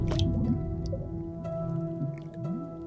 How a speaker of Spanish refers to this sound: En la quietud sepulcral del baño, imagina escuchar el imperceptible crepitar de los cuerpos fermentando y el ácido hervor de la viscosa sustancia que inunda la tina.